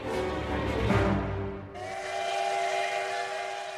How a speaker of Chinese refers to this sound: 每天清晨七点五十分，白银西北部的火车站，绿皮车的汽笛声准时响起。这条运送工人的通行铁路长二十五公里，已经运行了五十九年。